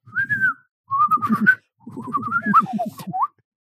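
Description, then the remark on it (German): A person whistles three short, warbling phrases mimicking birdsong, the pitch sliding up and down, fairly loud with a buzzy hummed undertone and brief pauses between phrases. “Und dann denke ich so, aber was ist denn das Wort für Fenster in Vogelsprache?”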